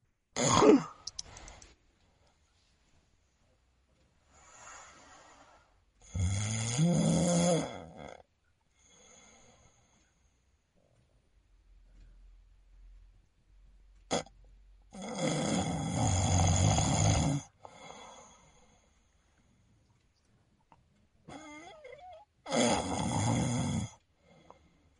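A man snores in his sleep, three loud, rasping snores spaced several seconds apart, each separated by long quiet pauses, which are apneas, with faint breathing in between. No one speaks.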